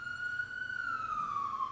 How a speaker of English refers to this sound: Well, that was an ambulance. From the fire station. They come from fire stations, dude.